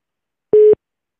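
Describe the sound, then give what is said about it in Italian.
A single short beep of a telephone busy tone on a jammed call-in line, one steady mid-pitched pulse lasting a fraction of a second, clear and fairly loud against silence. “Ecco, abbiamo le linee intasate.”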